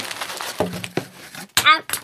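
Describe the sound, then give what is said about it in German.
Rustling crinkles of packing paper being handled and pulled apart in irregular bursts as a parcel is unpacked, with a short vocal exclamation near the end. “Hey, was haben wir denn da? Na, jede Menge Papier.”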